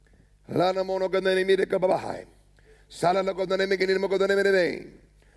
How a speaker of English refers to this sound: Oh, and there goes a cow. There goes another cow. He's out in a cow pasture with cows.